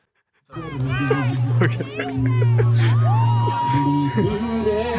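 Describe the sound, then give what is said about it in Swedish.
A big, densely packed crowd of several hundred people roars and cheers continuously, many voices shouting and calling over one another in a loud, sustained wall of noise that starts abruptly and never lets up. “Det är så jävla mycket folk också. De står liksom packade typ.”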